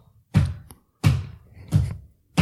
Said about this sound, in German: Die, wie ah, stampft man denn laut?